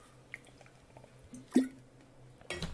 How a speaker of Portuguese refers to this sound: Deixa eu só beber água.